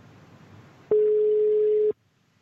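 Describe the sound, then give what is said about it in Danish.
A single steady telephone tone sounds for about a second while dialing out, loud and clear over faint background hiss, then cuts off abruptly into near silence. “Øhm, og lad os prøve at ringe hende op, så behøver jeg ikke at introducere hende, så kan hun selv introducere sig selv.”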